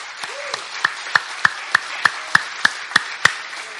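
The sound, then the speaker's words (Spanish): Steady rhythmic hand clapping, about ten sharp claps in even time at a brisk pace, sounding like a group clapping in unison in praise to the Lord, with no talking. “Dele una, dele palmas al Señor, hermano.”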